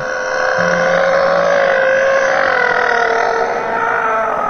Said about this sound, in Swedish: Så formar han orden som en vädjan genom tiden, ensamheten och sorgen. Men allt som kommer ut är ett isande vrål.